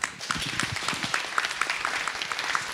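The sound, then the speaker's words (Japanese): An audience at an IR presentation for Hoshino Resorts REIT applauds steadily as the asset management company's president is introduced, many hands clapping in a dense, crackling wash with no pauses, holding at an even, moderate loudness throughout. “どうぞ大きな拍手お願いいたします”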